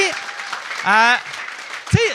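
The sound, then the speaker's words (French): A crowd at a live show applauds the staff steadily with a dense wash of clapping, while a couple of voices cheer and whoop above it, one sustained call in the middle and another near the end. “J'aimerais ça qu'on applaudisse le staff.”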